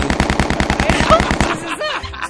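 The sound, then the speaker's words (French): Loud, rapid machine-gun fire from a war film playing on a TV, a steady stream of sharp bursts for over a second, then the shooting stops and gives way to a brief whistling, sweeping sound. “C'est possible de fermer la TV par que je travaille! Ben, je voulais juste écouter, il faut sauver le soldat Ryan”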